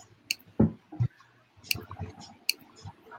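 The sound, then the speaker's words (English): Several sharp, crackly clicks pop out at irregular intervals, mixed with a couple of dull low thumps and faint muffled murmuring, giving a choppy, glitchy connection sound as the audio cuts out on the listener's end. “They're clicking and it's cutting out on my end.”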